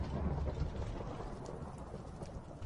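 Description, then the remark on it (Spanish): A thunder strike effect from a video game sword: a deep, continuous rumble with crackling, rain-like hiss layered over it, steady and fairly loud throughout, with no voices. “¿Ha caído un trueno? Ah, no, no, Es la Thunder Sword esta.”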